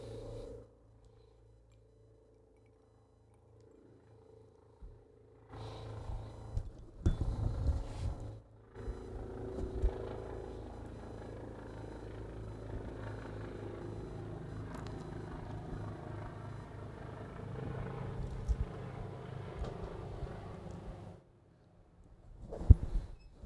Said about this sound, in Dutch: Helikopter boven mijn huis.